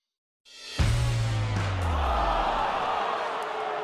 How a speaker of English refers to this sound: And there's oh, the fake one... crowd noise. I'm so used yeah, to it great. now after six months of sports. It's great. We recorded that at Heinz Field.